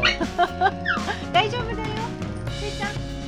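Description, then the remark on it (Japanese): Several short, high-pitched dog whines rise and fall in quick succession, with people talking quietly in the background: a dog on a dog-travel bus whines while its owners are away on a toilet break. “泣いてる泣いてる泣いてますね今ママたちがおトイレ休憩に行っている間にやっぱり離れると”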